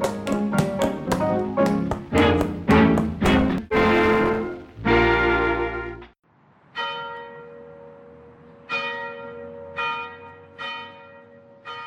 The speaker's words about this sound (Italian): La domenica mattina, mentre le campane delle chiese rintoccavano nei villaggi costieri, il mondo e la sua amante ritornarono alla casa di Gatsby e si strizzarono l'occhio sul prato.